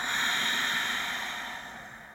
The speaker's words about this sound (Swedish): Så vi börjar med ett, två, tre, fyra, fem ett, två, tre, fyra, fem. Andas in. Andas ut.